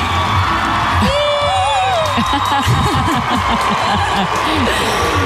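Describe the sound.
A crowd cheers and applauds a couple loudly and continuously, with shrill whoops and rising yells above a dense wash of clapping and excited voices throughout.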